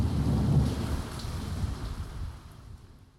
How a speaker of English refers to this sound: If there was anything to hear or sense, it was swallowed by thunder and rain.